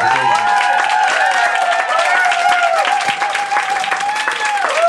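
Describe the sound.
A crowd applauds loudly and steadily, dense clapping filling the whole stretch, with cheering voices and whoops rising over the clapping throughout.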